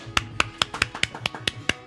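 Brief applause welcoming a guest: about nine sharp, crisp claps in a quick, steady rhythm, fairly even in loudness, with no voices over them.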